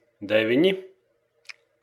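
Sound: computer mouse clicking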